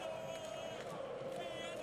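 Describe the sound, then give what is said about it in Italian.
Danish football fans cheering in a stadium in Baku during a match against the Czech Republic, a steady, dense crowd roar with a sustained droning note running through it, fairly quiet and unbroken for the whole couple of seconds. “Inizio abbastanza traumatico effettivamente per la Repubblica Ceca, mentre questi tifosi danesi festeggiano”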